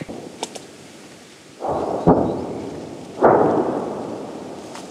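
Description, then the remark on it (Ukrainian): Two heavy, rumbling booms of artillery shell impacts near Bakhmut, Ukraine, as Ukrainian troops fire on targets spotted by aerial reconnaissance, a second or so apart, each rolling out into a long fading echo, with a sharper crack between them. “Отам знаходиться Бахмут, і те, що ми чуємо прильоти, це наші хлопці працюють по тим цілям, на які аеророзвідники наводили.”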